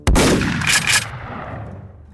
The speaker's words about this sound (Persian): تیر چهارم شلیک میشه به پشت کندی برخورد میکنه و بعد از رد شدن از بدن اون وارد بدن کانلی میشه